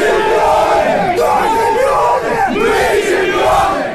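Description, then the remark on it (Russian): A loud, dense crowd of voices cheers and shouts together in an echoing locker room, with overlapping yells and whoops sustained throughout, as the Avangard hockey team celebrates with champagne after winning the Gagarin Cup final series. “В раздевалке после матча лилось шампанское и вообще было очень шумно.”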